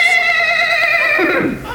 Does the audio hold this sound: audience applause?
no